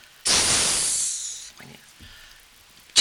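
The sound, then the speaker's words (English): A voice imitates a snake with one long, loud, sustained hiss lasting just over a second, followed by quiet breathy sounds and a short burst of noise at the end, showing how children were told to play a scary snake on stage. “a huge scene would involve with that little child and its hissing snake”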